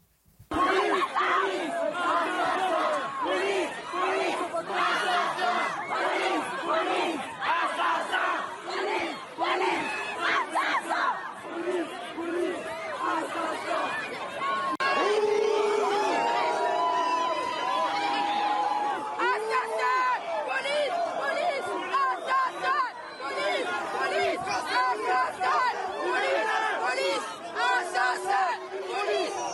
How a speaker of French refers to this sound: Écoutez, justement, ce qui s'est dit à l'une de ces manifestations euh, hier à Paris.